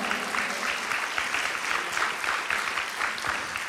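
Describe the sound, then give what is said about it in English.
An audience applauds its pastor for his gift to a building project, with steady, dense hand clapping that holds a fairly even level throughout, bright and crackly with no voices standing out. “Come on, we ought to give them a hand clap.”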